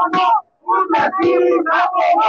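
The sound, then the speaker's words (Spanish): A crowd at a demonstration in a university conflict chants protest slogans in loud, rhythmic bursts of many voices shouting together, with a brief pause before the chant resumes in a steady cadence. “Ustedes ya escuchan las consignas de las personas, nos vamos a bajar del monumento donde nos encontramos para poder platicar con algunos de los, de los integrantes de este contingente y que nos cuenten pues su experiencia.”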